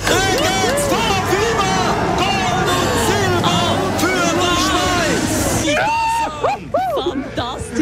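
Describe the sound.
A Swiss victory cheer at the Olympic Winter Games: a crowd cheers and whoops loudly and continuously, many voices rising and falling together. Near the end the roar briefly thins, leaving a few separate high shouts.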